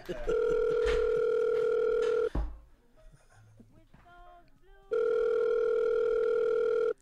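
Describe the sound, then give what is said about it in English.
A loud, steady telephone tone sounds for about two seconds, breaks off into a quieter stretch with faint voices, then returns just as strong until the end. “Kevin, will you pick up the phone, please?”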